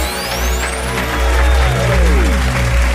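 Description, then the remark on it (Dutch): Sustained audience applause for a live performance in the studio of the radio programme Nachtdieren on a hot Friday evening, a dense steady wash of clapping that holds at full strength for the whole stretch, with faint tonal sounds sliding underneath. “geef hem een grote applaus.”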